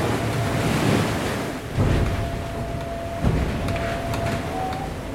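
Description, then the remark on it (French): Loud rush of wind and water as a sailboat under gennaker slams through waves at 20 to 30 knots in 30 to 35 knot winds, passing under sea spray, with bursts of spray hitting around 1.8 and 3.3 seconds over constant roaring noise and a faint whistling tone. “Le bateau est en mode sous-marin c'est-à-dire qu'on passe vraiment sous les embruns.”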